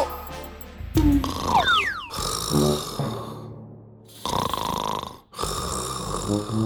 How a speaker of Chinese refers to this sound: 回答小鸡墩墩的是一阵呼噜声